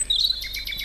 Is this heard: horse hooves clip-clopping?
no